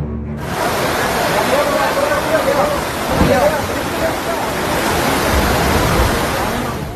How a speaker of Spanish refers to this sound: Nogales amaneció bajo el agua. Las intensas lluvias de las últimas horas han provocado desafortunadamente destrucción, inundación y han cobrado la vida de dos personas. Una intensa tormenta sorprendió a Nogales, Sonora